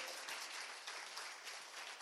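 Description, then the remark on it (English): A crowd applauds the Lord Jesus steadily, a dense wash of many hands clapping at once, loud and sustained with no voices standing out. “Let's applaud the Lord Jesus.”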